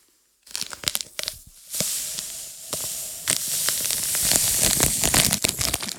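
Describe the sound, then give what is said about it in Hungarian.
Crinkling and tearing as a plastic bag of MSG is opened, followed by a steady, rustling hiss as the MSG granules are poured out, continuing for several seconds with no one speaking. “A Bori kinyit egy MSG-s zacskót, és ki fogja önteni valamibe.”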